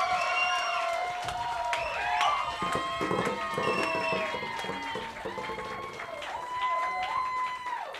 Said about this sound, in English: Wide right, you've been absolutely amazing. Round of applause for all the comics you saw in the roast battle.